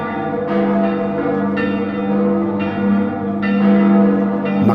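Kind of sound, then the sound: signal or alarm, church bells ringing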